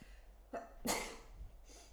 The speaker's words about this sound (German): jetzt muss ich niesen.